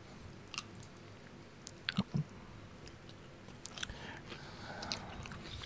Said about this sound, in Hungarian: Addig még megeszem ezt.